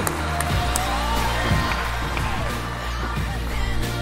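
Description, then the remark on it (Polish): An audience applauds steadily for several seconds as panel guests are invited onto the stage, a dense wash of clapping mixed with crowd noise and a few whoops, over a low droning hum. “Brawa, brawa, to słuchajcie, ostatnie brawa dzisiaj już prawie.”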